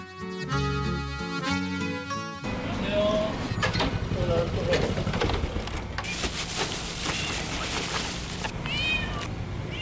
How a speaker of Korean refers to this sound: 어슴풀에 새벽에 밝아오는 아파트 단지.